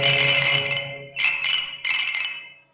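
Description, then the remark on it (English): Glasses clink together three times in a toast, each bright, ringing strike sustaining and fading out before the next. The sound is clear, with no voices. “Cheers. Wait. Cheers.”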